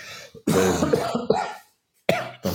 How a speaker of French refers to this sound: Et euh, excuse-moi, je vais retousser.